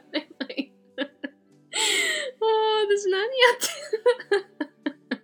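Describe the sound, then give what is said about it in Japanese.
A person mimics a pig's oinking: a run of short, clipped grunts, then a longer strained, squealing stretch and a held nasal tone, followed by more quick oink-like bursts. “皆さんオインクに聞こえなくはないですよね。ブーブーぐらいにオインクも豚っぽいと私は思うんですけどね。”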